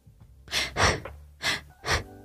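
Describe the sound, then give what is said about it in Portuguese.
Four heavy, gasping breaths in quick succession, loud, each a harsh airy rush of air with short pauses between. A person deliberately demonstrates an imitation of orgasmic breathing, with no talking. “A mulher aprende não é? Tipo, a, a, respiração orgástica.”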